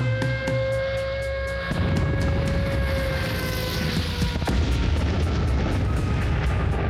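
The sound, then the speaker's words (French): German wartime bombing of London in the 1940 Blitz: deep, rumbling blasts roll in over a steady, droning air-raid siren, with sharp cracks scattered through a continuous loud roar. “Jour de brouillard sur Londres donc, et pire encore, le Blitz, les bombardements allemands.”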